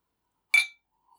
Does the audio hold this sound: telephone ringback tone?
no